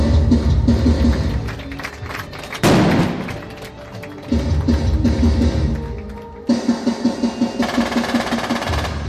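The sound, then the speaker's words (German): Driving rhythmic music layered with loud combat effects, played to a young audience: booming thuds, bursts of gunfire and a rushing blast, pulsing steadily throughout at full volume with no talking. “Das jugendliche Publikum wippt im Takt der Musik und der Gefechtsgeräusche mit den Köpfen.”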